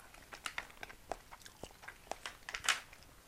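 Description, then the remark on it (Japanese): Crisp crunching of butter and soy sauce roasted burdock chips being chewed, a rapid irregular series of sharp crackly bites with a louder snap near the end, no talking. “なんか食欲をそそるタイトルだよね香ばしバター醤油ローストごぼう、うん、ごぼうチップみたいなやつが入ってる”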